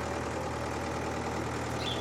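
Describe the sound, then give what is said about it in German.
A steady, low engine drone from a tractor driving up a hill toward an apple orchard on a bumpy ride, continuous with a rough rumbling texture and no voices. “Und schon fahren wir mit dem Traktor den Hügel darauf zu der Öpfelanlage. Oh, ist aber ziemlich holprig auf dem Traktor.”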